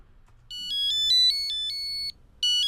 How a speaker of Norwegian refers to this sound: Da ringer det. Ja, det ringer, men jeg hører ingenting.